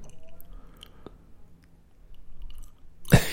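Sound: chewing and lip-smacking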